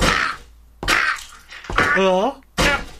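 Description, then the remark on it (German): Four sharp, heavy chopping whacks of a blade land at a steady, roughly evenly spaced pace, each a loud crunching thwack, with a short wavering voice crying out between the third and fourth blows. “ja, ich hack jetzt.”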